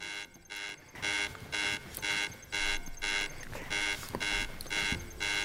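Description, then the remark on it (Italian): An electronic alarm beeps in a steady, repeating pattern of about ten harmonic bursts, bright and fairly loud, the countdown signal of a fall-detection phone app asking the user to confirm their condition after a sensor detects a fall, with faint background noise between beeps. “Vediamo qui a fianco il classico conto alla rovescia presente nell'applicazione, il quale si abbina anche a un segnale sonoro.”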